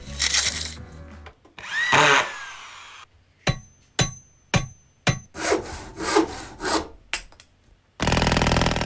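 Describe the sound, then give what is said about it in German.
A construction-site sample of power tools used for a music track: a buzzing drill run and a rising whine, then a string of short, sharp bursts roughly once a second, ending in loud, steady grinding. No voices. “Alles eine riesengroße Baustelle und das hat er in den letzten eineinhalb Stunden daraus gemacht.”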